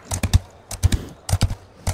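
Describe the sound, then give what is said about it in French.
Horse hooves pound a soft sand race track in a rapid three-beat gallop, each stride a cluster of dull thuds, repeating steadily with no voices. “Le fracas des sabots sur le circuit nous galvanise, mes consoeurs et moi.”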